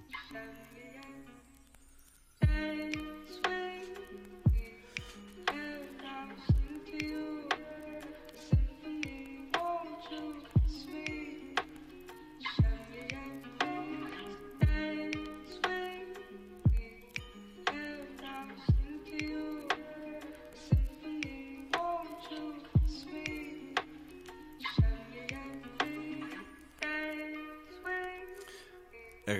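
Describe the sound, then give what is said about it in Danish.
A melodic beat plays under a vinyl crackle effect, with scattered clicks and pops sitting prominently on top of the music throughout. No one speaks. “skrattet er højere end hele billedet. Vinyleffekten.”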